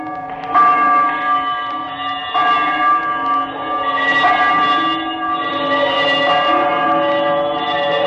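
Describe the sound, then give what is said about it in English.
A disused bell hanging in the corner of a room begins to swing, slowly at first, ringing loudly and repeatedly, its rich overlapping tones swelling with each swing and hanging in a long, humming sustain, with no voices present. “A disused bell that hung in the corner of the room, it was with great astonishment and with a strange, inexplicable dread that as he looked, he saw this bell begin to swing.”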